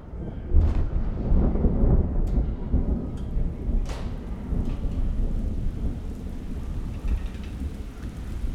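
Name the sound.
rain with thunder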